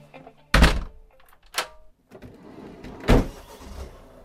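A house front door shuts with a solid thunk, followed by a sharper click and then another heavy clunk, as a key turns and locks it for the last time, with no one speaking.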